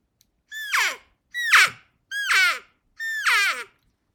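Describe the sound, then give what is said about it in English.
Four evenly spaced elk cow calls made by sucking in, not blowing out, on a Quaker Boy external reed cow call, each a loud, nasal mew that starts high and slides downward, with brief silences between them and no talking. “This is a, a Quaker Boy external reed uh, cow call.”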